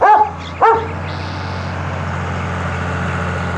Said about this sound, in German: Im Hintergrund knattert der Traktor von Bauer Tölkes.